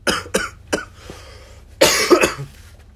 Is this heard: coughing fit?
yes